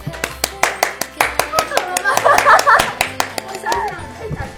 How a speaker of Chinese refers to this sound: 那就现在，就现在，快点，快来，来，掌声鼓励。